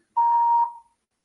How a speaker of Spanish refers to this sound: Hola, agradecemos su llamada y le informamos que usted dispone de 45 segundos para dejar grabado su mensaje. Indique por favor su nombre, número de teléfono y empiece cuando oiga la señal.